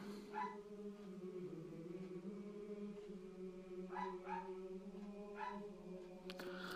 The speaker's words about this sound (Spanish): Les presento a mi perrita.